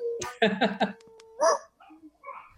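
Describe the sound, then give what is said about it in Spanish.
Dogs bark in a quick run of three or four sharp yaps, then one louder bark after a pause, followed by softer yelps and whines. “Oye, están los perros.”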